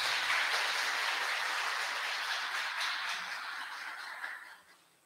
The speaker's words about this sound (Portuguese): Uma salva de palmas ao Senhor, irmãos.